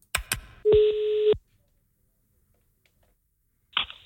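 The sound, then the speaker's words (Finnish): Telephone keypad dialing tones as a helpline is called: a couple of sharp clicks, then a single steady electronic beep lasting under a second, followed by silence and another brief click-like burst near the end. No one speaks. “Mä nyt en tiedä parempaakaan vaihtoehtoa kuin tämä, mutta jos soitetaan sinne ja kysyt, kysytään, että voisiko siellä olla jotain vinkkiä sille, että voisiko mä jotenkin mennä vaikka”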